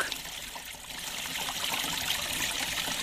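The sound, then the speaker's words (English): Water gushes steadily from a large leak in a stone wall on Manuka Street in Miramar, Wellington: a continuous splashing, trickling rush like a small brook, moderately loud with no voices. “No, that's the sound of a large leak gushing out of a stone wall in Miramar's Manuka Street in Wellington.”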